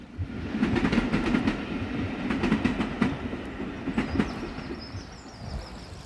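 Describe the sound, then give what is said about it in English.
A steam train on a charity railway run by volunteers starts off down the track, with a steady low roar and a rhythmic run of sharp chuffs and clatter, fairly loud with no voices. “This whole place is a charity and is run by very enthusiastic volunteers, but nothing beats the atmosphere and excitement when a steam train starts off down the track.”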